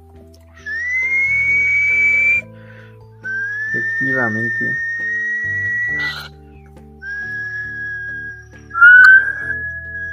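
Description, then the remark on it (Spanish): The production crew whistle several long, steady notes, each held for a couple of seconds with short pauses between, fairly loud, while a voice briefly speaks partway through. “Ah, ya chiflan la producción.”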